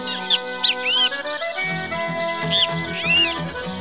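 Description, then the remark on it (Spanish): Great kiskadee calls ring out by a river in short, bright bursts, a few sharp arching notes repeated twice with a pause between, layered over a steady musical background. “Había cardenales, revoltosos gorriones, venteveos,”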